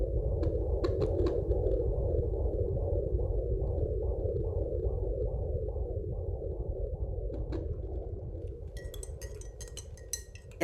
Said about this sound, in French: C'est un son médical, un son de maternité. On était si heureux de l'entendre qu'on a décidé d'acheter un Doppler fœtal pour pouvoir l'écouter tous les jours et surtout pour ne pas l'oublier.